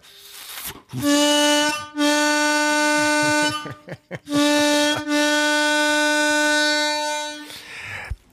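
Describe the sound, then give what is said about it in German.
A passing train sounds its horn in loud, sustained blasts: a short toot, then two long steady blasts with brief breaks, a deep, buzzy tone rich in overtones, with no talking over it. “Ah, ein, eine, eine Eisenbahn fällt vorbei.”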